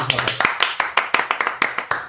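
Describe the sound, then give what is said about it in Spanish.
Brisk applause: a dozen or so sharp, crisp hand claps in a quick, slightly uneven rhythm over two seconds, with a faint voice briefly underneath at the start, celebrating the first live programme of Radio Al Compás. “Un aplauso, lo”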